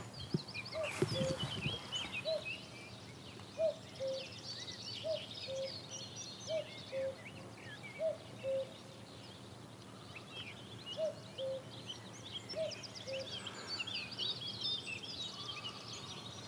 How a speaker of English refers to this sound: Ooh, and there's a cuckoo calling.